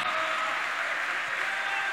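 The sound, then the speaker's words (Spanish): An audience applauds God, the one who lives forever, during a sermon, in a dense, steady wash of clapping that holds at an even, fairly loud level for the full two seconds, with no individual claps standing out. “De nuevo el aplauso al que vive para siempre.”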